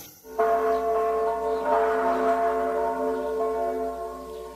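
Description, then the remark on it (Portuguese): Catholic church bells ring out at 2 pm with a sustained, resonant tone, their overlapping harmonics hanging in the air after a sharp initial strike, with no voices. “Con el replique de las campanas ha iniciado a las 14 horas en punto en todas las iglesias católicas el sonar, el sonar el pedido a Dios para que cubra con su manto con el replique de las campanas”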